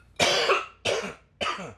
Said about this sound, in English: I have to cough for one second. Oh, no worries.